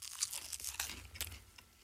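Someone bites into and chews a spiced bun, producing a quick run of soft, irregular crunching and mouth sounds, with a few sharper crunches standing out and no talking over them.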